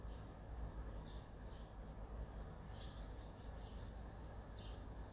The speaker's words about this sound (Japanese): 外の音聞こえてますかセミとか鳥とかの声聞こえますかセミの声が違うんだよな今